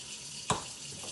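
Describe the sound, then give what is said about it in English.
A steady hiss of water running from a tap while dishes are being washed, broken by one sharp clunk partway through, like a dish knocking in a sink; no voices. “Trust me, nobody else is doing the dishes but me.”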